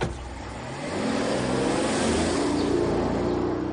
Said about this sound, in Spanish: Milo sube a uno de los coches y se marcha.